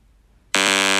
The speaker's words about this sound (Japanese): 今、上手な効果音出てたけど、ま、ピーって私が口で言いながら喋ったんですけども、そのピーの部分、話しちゃおうかなと思います。